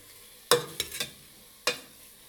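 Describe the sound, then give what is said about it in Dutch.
Food frying softly in a tall BK cooking pot on an induction hob, the heat just turned lower, a low steady sizzle underneath a few sharp clinks of a utensil scraping and tapping the pan, with no talking. “Kijk, ik zet hem nu zachter en dan hoor je al gelijk dat hij ja. zachter gaat bakken.”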